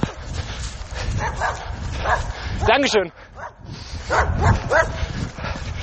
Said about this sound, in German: Ich glaube, das ist derselbe Hund, der mich vor ein paar Wochen genau an dieser Stelle angefallen hat und ich ihn wild beschimpft habe.